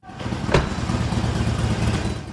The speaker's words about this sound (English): Cars are cycling in and out to fill up, but I'm not here to gab about gas.